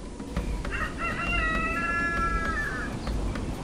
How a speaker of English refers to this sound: It wasn't long before the rooster did indeed crow